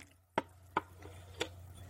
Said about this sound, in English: I need to welcome you the Bedouins Coffee Corner way, which is through a cup of Arabic coffee. I'm going to virtually pour you one.